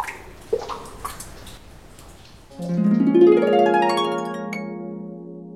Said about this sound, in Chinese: 哦，原来是雨滴落在了盘子上，发出了叮；敲击了汤锅，发出了咚。还有打在炒锅上，发出了咚的声音。